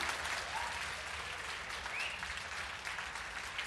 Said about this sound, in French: Oh, une belle femme, on, l'applaudit tous ensemble, s'il vous plaît, ne serait-ce que pour la félicité d'être née du bon côté.